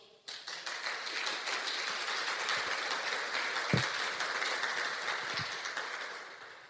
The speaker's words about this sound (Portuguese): Mais aplausos.